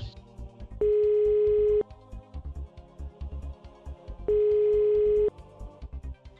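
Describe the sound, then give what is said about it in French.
An outgoing call's ringback tone as the game show Qui veut gagner des millions phones a contestant near Vienna, Austria: two steady, one-second tones separated by a pause of about two and a half seconds, loud over a low rhythmic music bed. “Eh bien, allons-y. On appelle le Dude.”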